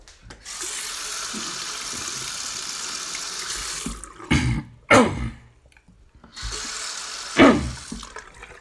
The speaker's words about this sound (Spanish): Y en medio del directo voy a tener que tomar agua. Así no queda de otra, señores. A buscar la solución. Voy a seguir haciendo el directo, pero primero voy a tomar agua.